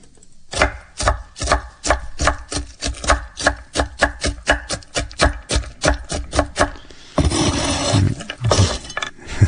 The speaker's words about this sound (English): That was chopping nuts on a co- chopping board.